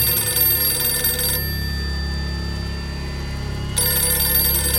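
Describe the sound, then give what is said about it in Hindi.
A telephone rings loudly in two bursts, a pause of a couple of seconds between them, with a steady low hum underneath and no one speaking. “एक ग्लास में थोड़ी बर्फ डाल के एक ड्रिंक लेके बैठा कि फोन बजा”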